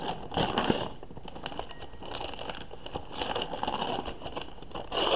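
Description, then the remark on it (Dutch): Steady crinkling and rustling of packaging as a well-packed mug is unwrapped, with scattered sharper crackles and scrapes running for about five seconds at a moderate level, no voices. “Dan moet ik hem ook echt een beetje openmaken voor die ding.”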